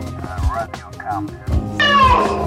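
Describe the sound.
A person imitates a cat, producing a few gliding, nasal meow-like cries that rise and fall in pitch, ending with a louder, drawn-out meow.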